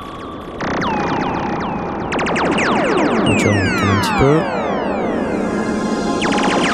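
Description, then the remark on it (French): A sustained string-machine pad, typical of an Eminent 310 or Solina, swirls with a sweeping phaser effect over a low synth bass line played on a Korg Poly6, loud and continuous, with a few faint spoken words briefly mixed in. “Donc, ce, ce son-là, c'est typique d'un Eminent 310 ou d'un Solina, qui est une string machine.”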